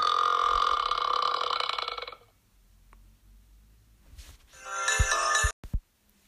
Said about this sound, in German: Also, lassen wir ihn mal rülpsen.